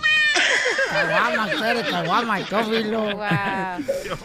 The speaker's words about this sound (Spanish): Pero tiene gato, tiene un gato. Sí, es mi gato, mira, Teófilo. ¿Qué quieres, Teófilo?